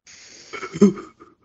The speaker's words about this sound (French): avant, avant qu'on embarque dans ton sujet, j'aimerais ça qu'on prenne, tous une grande respiration.